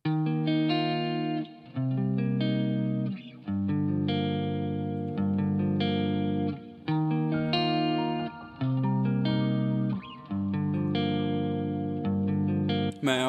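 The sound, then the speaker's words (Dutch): A music track that has not yet been released plays loud and full with no talking, built on heavily processed, distorted synth chords with a chorus-like shimmer, repeating in short phrases separated by brief dips. “dat is muziek die zowel al uitgekomen is, als muziek die nog uit moet komen”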